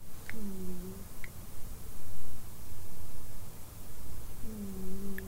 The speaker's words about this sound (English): Can you hear Tiffy snoring in the background?